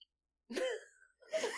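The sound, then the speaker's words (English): A throaty burp rumbles, followed after a short pause by a second rough, gurgling belch-like sound, both fairly loud against otherwise quiet surroundings. “I can't tell honestly if it's a barf or a. Legit burp.”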